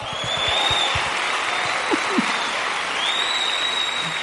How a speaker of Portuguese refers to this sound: Ó, é, essa igreja aqui é muito estranha. Porque aplaudir um negócio desse aí.